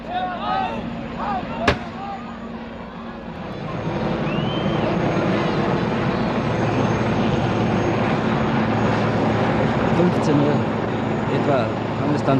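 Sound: helicopter flying overhead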